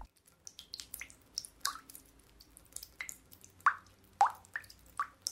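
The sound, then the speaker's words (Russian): Water drips steadily from a bathroom tap, each drop landing with a clear, ringing plop at a fairly regular pace, with no voices. “Там равномерно и звонко капала вода.”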